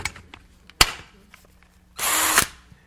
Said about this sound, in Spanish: ahora el taladro puede hacer y puede usar el talento por el cual fue creado. Este taladro no fue creado para meter clavos, ni para aflojar tuercas. Este taladro fue hecho solamente para meter y sacar tornillos.